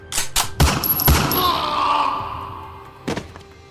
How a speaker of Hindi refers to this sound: लेकर आओ भाई थानेदार को इंस्पेक्टर किशन के आते ही बिना देरी के उस पर गोली चल जाती है